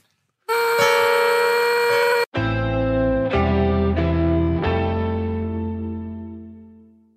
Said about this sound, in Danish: Det er jo, det er jo ja, jeg har taget en falske tone med. Nå, må vi høre nogle falske toner?